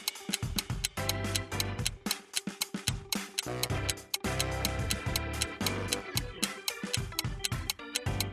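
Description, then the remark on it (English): A 10-second countdown clock ticks in a steady, quick rhythm over tense background music with a pulsing bass line, loud, continuing for several seconds with no voices. “10 seconds are on the clock.”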